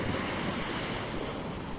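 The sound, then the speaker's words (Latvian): Waves from a ship that has just passed stir the calm water and wash steadily ashore at Mangaļsala in a continuous, fairly loud rushing surge, with a windy hiss over the water and no voices, on a warm, sunny late-summer day. “Tikko ir pabraucis garām kuģis, kas atmodina rāmos ūdeņus,”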